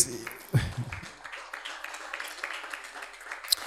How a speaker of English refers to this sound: so let's continue that verse why didn't you clap that much can you clap a bit more that was a powerful point